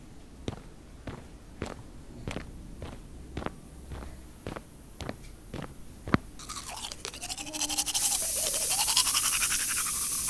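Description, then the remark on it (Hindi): A toothbrush scrubs teeth in the morning in steady, rhythmic strokes for several seconds, then gives way to a continuous rushing, splashy hiss that grows louder toward the end. No one speaks. “ठीक है आप बरस तो कीजिए तब तक”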